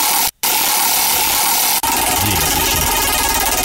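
A prize wheel spins to decide the value of a scratch-card lottery ticket prize, with a dense, steady whir of rapid ticking clicks, loud and continuous, broken by a brief dropout near the start and a sharp knock partway through.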